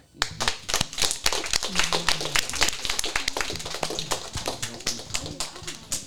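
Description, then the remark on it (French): An audience at an EHPAD care home applauds children, a dense, steady patter of many hands clapping for several seconds at an even loudness, with faint voices murmuring underneath. “On peut les applaudir.”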